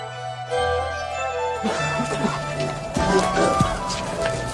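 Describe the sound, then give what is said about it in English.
Horses' hooves clop at a steady walk while harness bells and metal fittings jingle, with a low murmur of indistinct voices and outdoor bustle underneath. “After High Mass, the claimants began to come in to look for their stolen horses.”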